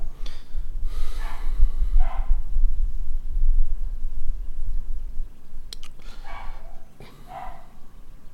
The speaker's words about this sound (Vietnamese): À, xin lỗi chị em con chó nhà tôi nó cứ sủa hoài